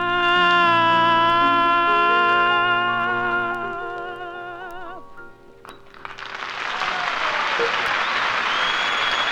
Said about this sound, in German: Und das vermutlich überwiegend bürgerliche weiße Publikum klatschte brav Applaus.